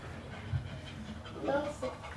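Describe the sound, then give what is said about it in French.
A voice imitates a panting dog, quick breathy huffs with a few whiny, whimper-like squeaks, loud and rhythmic for a couple of seconds. “qui fait le chien”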